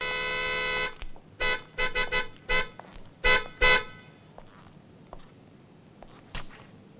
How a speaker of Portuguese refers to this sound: na primeira vez que isso aparece no filme, é aquela famosa cena da buzinada, né? Chegou o guarda, o senhor buzinou.